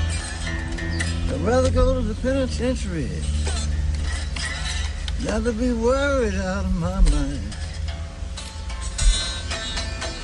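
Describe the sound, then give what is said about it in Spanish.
A recorded blues guitar track plays with sliding, bending notes in two phrases over a dense, steady band backing, at a moderate, even level. “Uy, qué chévere suena esa guitarra.”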